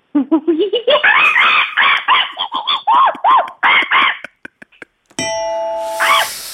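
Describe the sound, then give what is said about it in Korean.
On a radio show, a person crouching with arms hanging down in a monkey pose imitates a monkey with a rapid series of rising, whooping hoots that speed into loud, excited screeches, followed by a few quick clicks and a brief ringing tone. “아, 이게 보이는 라디오면 좋은데 아, 보이지 않는데 포즈를 취해 야 원숭이 소리가 난다”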